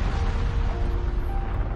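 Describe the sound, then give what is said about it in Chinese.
A volcano erupting: a loud, continuous low rumbling roar with a rough hiss on top, steady throughout without one sharp boom standing out, and no voices. “第二天早上，砰，山又喷火了，响声吵响了霸王龙。”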